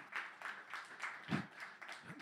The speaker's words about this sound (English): I don't know why it took so many times. We're clapping for the loser because he finally got it. He finally got it. Good job, Pastor. Your third time.